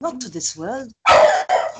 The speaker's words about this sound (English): Sorry, that's my dog.